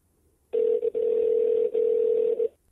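A phone line ringing: one steady, buzzy ring tone lasting about two seconds, heard through the handset with no one picking up and no voices. The call is to a Sephora store on a Monday morning and has gone unanswered past the 15th ring.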